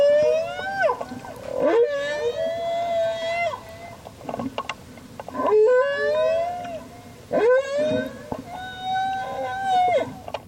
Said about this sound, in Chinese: 全球的大翅鲸流行歌曲